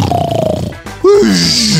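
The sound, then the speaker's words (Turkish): A voice mimics an assistant's loud snoring: a rough, rattling throaty drone, a brief pause, then a strained, nasal rasp that holds steadily, loud with no real words spoken. “Yani uykuya dalmama izin verecek bir boşluk bırakmaksızın horluyordu.”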